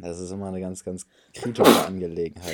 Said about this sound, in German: Gesundheit. Danke.